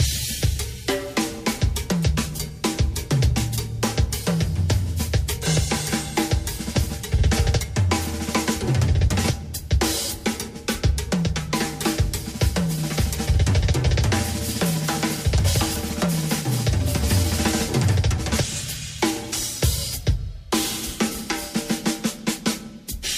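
A drum kit (bass drum, suspended cymbals, tom-toms, snare and hi-hat) plays a steady, busy groove throughout, with crisp cymbal and hi-hat hits over punchy kick and tom strokes, loud with no talking.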